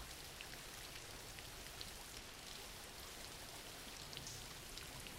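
Steady rain falls continuously, a dense hiss of drops with scattered brighter patters, fairly quiet and even throughout with no voices.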